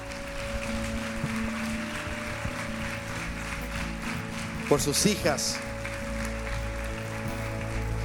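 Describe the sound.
A steady wash of audience applause runs through the whole clip at an even level, with a man's voice briefly speaking over it partway through.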